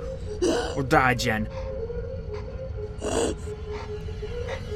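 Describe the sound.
Desperate, raspy gasps for air from a woman struggling to breathe after being punched come in a few strained bursts over a steady low hum, with a voice briefly speaking near the start.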